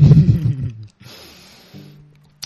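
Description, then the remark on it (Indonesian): Liquid glugs slowly out of an expensive bottle: a low, throaty gurgle, then a steady hissing trickle and a few softer glugs, ending with a faint click, with no talking. “Ini kalau botol-botol mahal memang agak susah keluarnya.”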